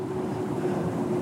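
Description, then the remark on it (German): A steady, low engine rumble with a faint humming tone fills the background outdoors by a canal, trucks and cars droning past on both sides without pause. “Ihr könnt es im Hintergrund hören, Gepolter, Geknatter, Geschepper, LKW und Autos von beiden Seiten umzingelt am Kanal.”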